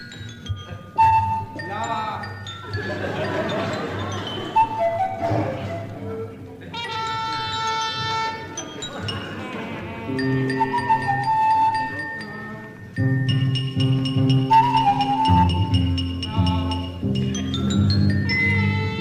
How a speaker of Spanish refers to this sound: Tiene la ruedita del carrito. La ruedas de changuito. Claro, sí. Y hay algo muy lindo que es cuando está empezando la obra, antes de que la obra empiece, que está mm, López Pucho tocando el tactilófono, Se escucha hermoso como suena.